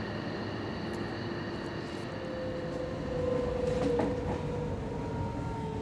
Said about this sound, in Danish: Jeg står midt i S-toget.